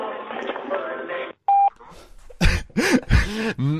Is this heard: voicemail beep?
yes